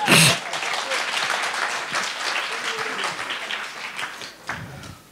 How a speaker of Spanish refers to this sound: Oye, un aplauso.